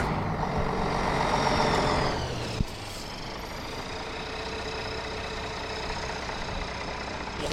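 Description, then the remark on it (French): Heavy bus engines rumble and idle as buses arrive at the bivouac of the MDS 2022 after about an hour and a half on the road, a loud steady drone that eases slightly after a brief clunk, then settles into a constant low hum with no voices. “Et après environ une heure et demie de route, eh bien les bus arrivent sur le fameux bivouac de ce MDS 2022.”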